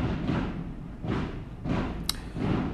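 Firework rockets boom in a steady series, roughly four muffled thuds a couple of seconds apart, low and rumbling with no voices over them.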